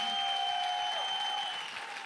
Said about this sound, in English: Ръкопляски, ако вярваш това. Come on, give him a big clap. Хайде, хора.